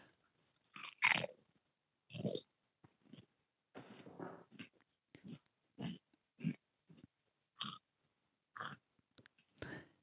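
Crisp crunching of potato chips being chewed, arriving in uneven bursts roughly every half second to a second, with brief quiet gaps between bites and no talking.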